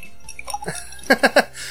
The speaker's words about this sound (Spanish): Ahí están los hielos.